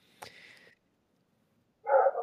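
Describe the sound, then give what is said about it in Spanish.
A dog lets out a thin, high whine, then after a short silence gives a loud bark. No one is talking. “Tengo el perro aquí haciendo una aparición.”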